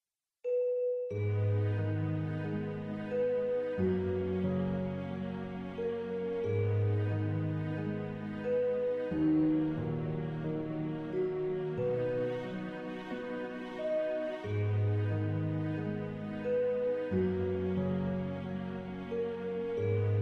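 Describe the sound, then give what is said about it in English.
A slow instrumental passage for harp, celesta, strings and English horn, played with heavy reverb, notes blurring into a continuous wash; steady loudness throughout, with low chords shifting every few seconds and no voices. “Um, and then let's listen to the same thing with the reverb that I use in the piece.”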